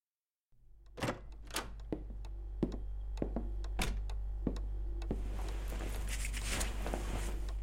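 Slippers shuffle and scrape across a floor in irregular steps over a steady low hum, the scuffing growing into a denser rustle toward the end. No one speaks.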